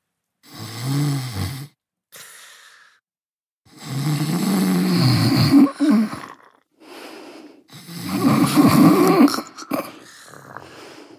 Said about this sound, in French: Les ronflements ne tardèrent pas à se faire entendre.